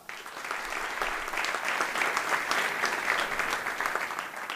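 A crowd applauds steadily, a dense wash of many hands clapping at an even, fairly loud level for a few seconds, with no voices standing out.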